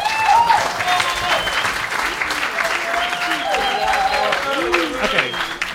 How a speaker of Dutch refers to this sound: Top. Geef hem een applaus.